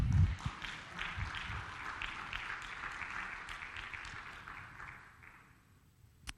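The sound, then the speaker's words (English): An audience applauds with a dense, steady patter of many hands clapping at moderate volume, holding for several seconds before thinning out and fading away. “I thought I'd get a better round of applause than I got.”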